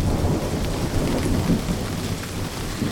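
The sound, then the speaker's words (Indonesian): Steady rain pours down with a deep, rumbling roll of thunder underneath, a dense, continuous wash of sound with no voices. “Ada yang pernah mencium bau khas saat turun hujan?”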